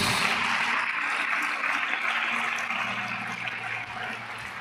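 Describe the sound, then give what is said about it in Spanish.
A church audience claps loudly and continuously in applause to God, a dense, even wash of applause that holds steady for several seconds before easing off slightly toward the end, with no one speaking over it. “Bueno, dale ese aplauso más fuerte a Dios.”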